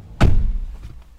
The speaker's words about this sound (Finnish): TV-kuvaaja tuttuni sanoi, että auton laadun kuulee oven sulkemisen äänestä. Tämähän kokeillaan.